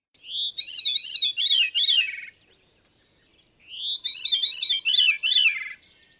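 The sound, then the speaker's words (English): A veery thrush sings two clear phrases, each a breezy, downward-spiraling series of fluty notes, separated by a short pause. The bird is fairly loud, with no voices present. “This is another thrush, a veery thrush.”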